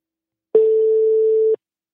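A single ringback tone on an outgoing phone call: one steady, mid-pitched electronic beep lasting about a second, fairly loud and alone, starting and stopping abruptly with no voices.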